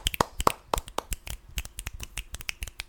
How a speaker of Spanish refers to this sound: Te mandamos un, un saludo, un beso y un aplauso, un aplauso, ¿por qué no? Aplauso de teatro.